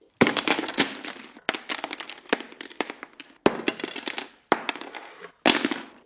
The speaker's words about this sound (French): Bruit de la chute de tout le contenu de la trousse par terre.